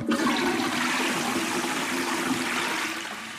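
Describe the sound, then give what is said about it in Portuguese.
A toilet flushes with a loud, steady rush of water, filling the whole span without pause and easing off slightly at the very end. No voices are heard. “São dos mais comuns e eh, é o simples hábito de se descartar a cotonete usada na sanita.”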